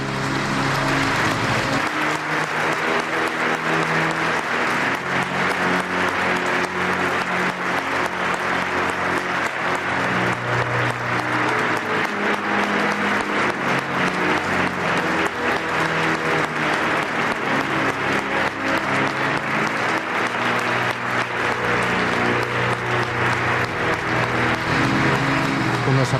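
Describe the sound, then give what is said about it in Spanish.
Long, steady applause from a large crowd fills a cathedral as the diocese welcomes its new bishop, Monsignor Santos Montoya, taking possession and seated in the cathedra, a dense wash of clapping that stays loud and unbroken for nearly half a minute. “aplausos, Paloma, que suelen ser habituales, que sean largos, porque la diócesis siempre quiere recibir a su nuevo obispo con lo mejor.”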